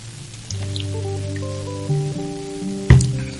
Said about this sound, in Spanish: Voy a tomar agua porque estoy medio mal de la voz.